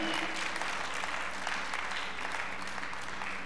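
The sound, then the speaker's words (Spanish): A church audience claps loudly for the Lord during a sermon: a dense, continuous patter of many hands that holds at an even level for several seconds, with a faint low hum beneath it. “Aplaude fuerte al Señor.”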